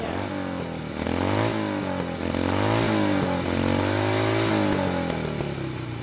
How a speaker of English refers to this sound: This beautiful motorcycle is the creation of the Orange County Choppers. And they are a, a very successful small business who produce custom motorcycles.